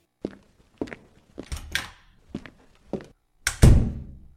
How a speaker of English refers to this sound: leaves with footsteps.